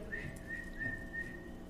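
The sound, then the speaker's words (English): A faint human whistle calling sheep holds one steady, thin pitch for nearly two seconds, wavering slightly, with no talking over it and only low background hum beneath. “Now, I can't whistle very good and still can't, but I could just barely say,”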